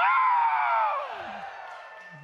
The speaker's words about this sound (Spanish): No, ese, fue un pujidillo el que se aventaron. Un grito de júbilo.